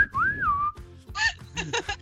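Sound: human whistling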